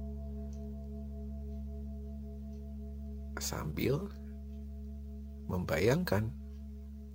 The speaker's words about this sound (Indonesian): Nikmati musik yang kamu dengarkan ini.